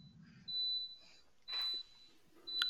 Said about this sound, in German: Das klingt nach einem Rauchmelder gerade. Ähm, nee, die Spülmaschine oh, leider. Achso, okay. Gut, das, ist, das können wir entspannt wegatmen, die Spülmaschine.